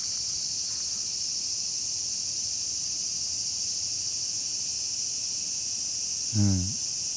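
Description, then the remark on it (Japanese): Cicadas drone steadily throughout in light rain, a continuous high-pitched buzzing that holds an even level with no pauses. Near the end a short, lower wavering call briefly rises above it. “小雨やから今セミ君も泣いてますね”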